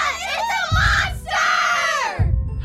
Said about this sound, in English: One day, a monster attacked the town. The monster was big and scary, and everyone screamed and said, ah!